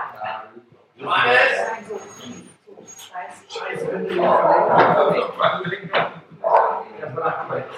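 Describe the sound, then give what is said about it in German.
A dog barks and whimpers in a string of short, uneven bursts, fairly loud, while people talk at the same time. “Der Hund ist vorbei, alles gut.”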